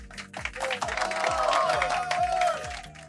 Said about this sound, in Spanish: Palmas por favor, producción para ellos.